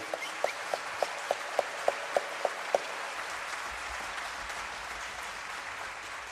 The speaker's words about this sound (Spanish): Un fuerte aplauso también